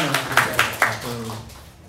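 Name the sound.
audience applause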